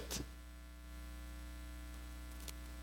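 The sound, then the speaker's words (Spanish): A steady electrical hum from microphone interference, with buzzing harmonics, drones throughout, joined by brief crackling bursts of static near the start and again toward the end, with no one speaking. “¿Me pueden ayudar con este micrófono, porfa? Gracias. Tengo mucha interferencia, no sé qué está pasando.”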